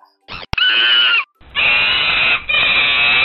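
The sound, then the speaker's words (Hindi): A monkey shrieks in pain after its tail broke off as it strained to flee, loud, in three long, shrill, wavering screams separated by brief gaps, with no talking. “उन्हें देखकर बंदर भागने के लिए जोर लगाता है जोर लगाता है जोर लगाता है और उसकी पूछ टूट जाती है हाँ बंदर तो पूछ कटा बंदर बन गया उसको तो बहुत दर्द हो रहा होगा हाँ उसे दर्द हो रहा था और वो दर्द के मारे चीख रहा था”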